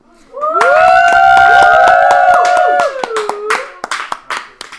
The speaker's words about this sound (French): Je demande de l'applaudir.